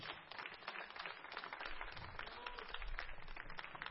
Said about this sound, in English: Give Jesus one more hand clap of praise.